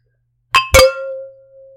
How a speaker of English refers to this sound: I think it is now time we cheers. All right, cheers. Cheers.